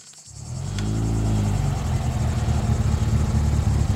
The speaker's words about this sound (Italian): Il rombo di una macchina la sveglia di soprassalto, avvolta da una polvere fitta, si è appena materializzata una lussuosa automobile